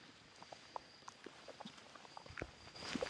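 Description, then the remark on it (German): Hooves of a small herd of zebras patter irregularly over the ground as they trot away, soft, with a rushing noise swelling toward the end. No one speaks. “Ja, die rennen jetzt gerade ein bisschen weg, aber man kann schon recht nah mal rangehen.”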